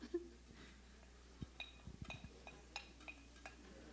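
Ingredients being dropped into a pot: a series of soft thuds and light metallic clinks scattered over a few seconds, with no one talking.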